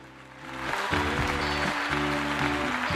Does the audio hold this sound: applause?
yes